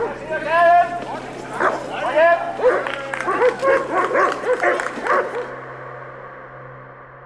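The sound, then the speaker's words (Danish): Police dogs bark repeatedly in quick, overlapping bursts for about five seconds amid the murmur of a demonstration crowd and raised voices, as riot police clear the street in front of a house on Hundi Strandvej; then the barking stops and only a low background hum remains. “Efter taler og sange blev en del demonstranter foran huset, indtil kampklædt politi ryddede gaden med hunde.”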